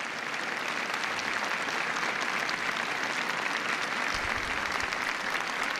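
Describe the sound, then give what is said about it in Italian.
Sustained applause from a large crowd in a square, rising after the Pope's first words of his homily addressed to Benedict XVI; a dense, steady wash of clapping that holds at an even loudness for several seconds with no voices standing out. “Le prime parole del Papa nella sua omelia rivolte a Benedetto XVI e nella piazza si alza i vescovi, l'applauso.”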